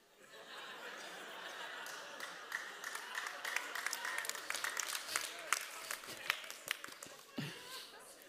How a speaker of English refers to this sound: I hope you're not clapping him because I don't like him.